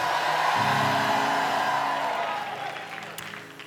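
A large church audience claps and hollers loudly at once during a sermon, a dense roar of applause and cheering that stays strong for a few seconds before gradually fading.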